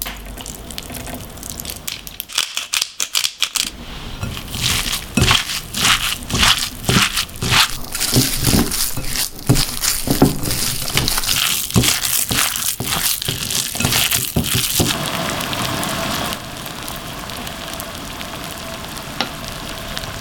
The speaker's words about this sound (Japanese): 今朝はあったかい水餃子のいい音それではお聴きください